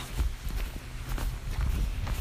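footsteps walking outdoors

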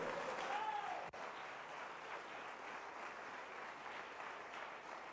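audience applauding

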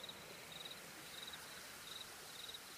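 light drizzle falling

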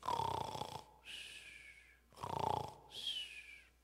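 snoring

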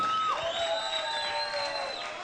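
applause and cheering

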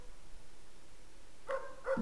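dog barking

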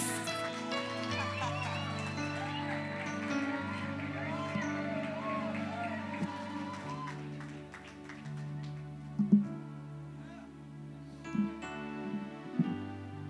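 audience applause

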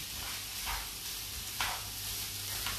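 spätzle sizzling

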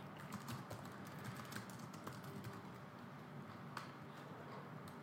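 clicking on a computer

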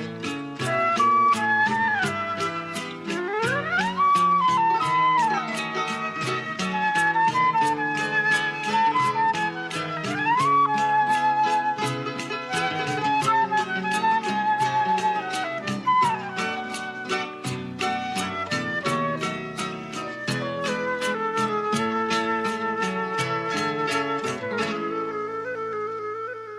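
song playing

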